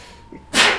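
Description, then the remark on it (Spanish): A single sudden sneeze bursts out close to the microphone after a brief quiet moment, a sharp, airy blast that is loud and short, with no talking around it. “Salud. Gracias.”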